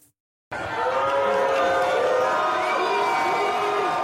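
A large crowd boos the president loudly and continuously on his return to the field, a dense wall of jeering voices with sustained drawn-out tones, starting abruptly after a brief silence and carrying on without pause.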